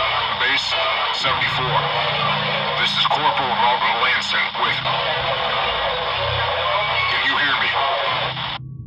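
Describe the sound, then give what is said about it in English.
Steady radio static crackles throughout as the radio dial is turned through different stations, while a thin, muffled voice comes through the transmission in short bursts, with sharp pops here and there before the signal cuts off abruptly. “A sudden crackle got everyone's attention as she broke through to the outside world.”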